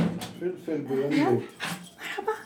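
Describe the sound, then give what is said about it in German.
A small, white, fluffy mixed-breed dog whimpers and yelps excitedly while jumping up with a wagging tail and licking a person's hands, a run of high, wavering whines broken by short breathy sniffs and snorts, with a voice faintly heard in the background. “eine kleine weiße, flauschige Promenadenmischung, springt schwanzwedelnd an mir hoch und leckt mir die Hände.”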